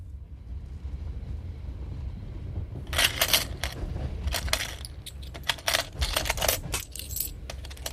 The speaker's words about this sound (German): Was machst du da? Nichts. Hab nur das Geld in der Kasse nachgezählt. Leg das Geld wieder rein. Ich wollte mich nur überzeugen, dass nichts fehlt.